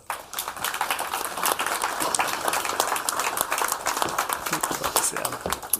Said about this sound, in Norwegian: Men gi eh, de en varm applaus.